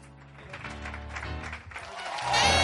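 A crowd claps steadily, a dense wash of applause that swells louder toward the end, with a low musical hum underneath.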